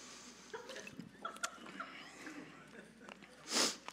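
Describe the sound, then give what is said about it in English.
A quiet sip of water: one short slurping draw near the end, preceded by a few seconds of soft rustling and breathy background noise. “Um, but my wife's best piece of advice for me was always take a sip of water when you feel like you're about to cry.”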